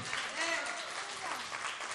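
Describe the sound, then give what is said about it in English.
An audience claps steadily, a dense, continuous patter of many hands with murmured voices faintly mixed in, holding an even loudness throughout. “And you're clapping because you're seeing it from this end.”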